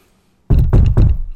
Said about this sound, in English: it's me knocking on wood.